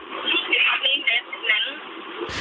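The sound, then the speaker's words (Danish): A voice comes through a poor, garbled phone line, thin and muffled with the words smeared and unintelligible, ending in a brief burst of harsh static. “Ja, det, jeg er simpelthen, jeg, jeg er ked af at stoppe dig, jeg er ked af at stoppe dig, men der er simpelthen så dårlig lyd på forbindelsen, jeg kan knap høre”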